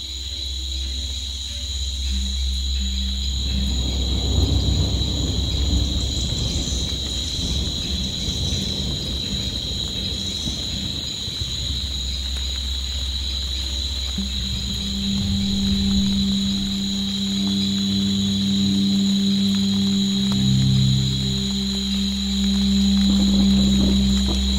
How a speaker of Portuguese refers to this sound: a chuva vai se transformando.